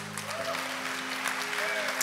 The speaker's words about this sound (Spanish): Pues un fuerte aplauso para Dios.